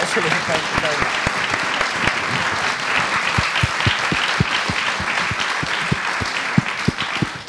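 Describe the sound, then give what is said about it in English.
An audience at a Pin Drop storytelling event applauds a storyteller after his stories, steadily, a dense wash of many hands clapping at an even level, with some sharper individual claps standing out throughout. “Um, can we, I think we should all give you a round of applause after that last thing.”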